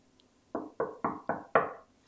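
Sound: knocking on a door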